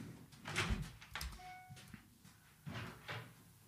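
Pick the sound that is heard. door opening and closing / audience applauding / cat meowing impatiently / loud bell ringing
door opening and closing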